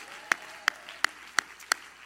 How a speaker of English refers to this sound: Everybody clap your hands to the Lord and shout, Yes!